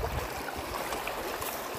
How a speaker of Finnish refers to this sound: mä oon täällä menossa Kitkajoen varrella. Ehkä se jotenkin tuntuu, että Kitkajoissa on tähän vuoden aikaan nähnyt yllättävän paljon vettä. Varmaan niitä viime, viime viikon rankkasateiden jämiä vielä valuu täällä, täällä asti nyt.